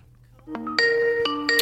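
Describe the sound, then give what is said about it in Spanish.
A phone's electronic ringing tone plays loud, with a short series of clear beeping notes stepping between pitches and no voices over it, during an outgoing call. “estamos llamando.”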